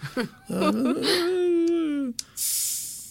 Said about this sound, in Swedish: det lät inte som öl. det luktar inte öl heller. Ska vi gissa att det är någon sorts Coca-Cola i den här burken? Du hörde hela Sverige att jag öppnade en burk någonting.